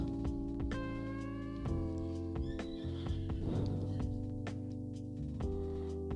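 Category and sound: animal, horse hooves clip-clopping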